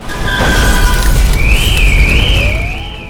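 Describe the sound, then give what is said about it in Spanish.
A huge tsunami wave about 30 metres high crashes ashore on an Indian Ocean coast, sweeping inland and uprooting palm trees, in a deep, continuous, loud roar of churning water, with wailing sirens rising and falling above the rumble. “El mar comenzó a engullir la tierra, arrastrando todo lo que encontraba a su paso, arrancando palmeras, tragándose a las personas, destrozándolo todo.”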